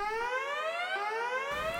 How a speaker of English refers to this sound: Just then, the proximity alarm uh, starts blaring throughout the ship.